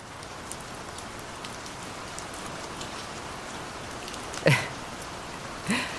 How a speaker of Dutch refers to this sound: Dit beluister jij ook vaak? Ja, dit beluister ik als ik tot rust wil komen. Voor mij is niks zo rustgevend als ehm, de, het geluid van regen. Soms ook zelfs tropische storm.